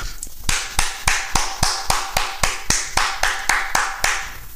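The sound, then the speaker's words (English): A single person claps their hands in a steady, even rhythm, saluting the New York Giants' season under head coach Brian Daboll, about fifteen sharp, crisp claps in a row with no voices. “Y'all get the hand clap because the season that y'all have had under first year head coach Brian Daboll, you guys exceeded every expectation that any Giants fan out there could have.”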